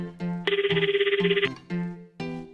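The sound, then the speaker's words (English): A telephone rings for a hurried call in a movie conversation used for an English lesson, in one bright, rapidly warbling burst lasting about a second, clear, set between softer humming tones before and after. “Ken is calling now, seemingly in a hurry.”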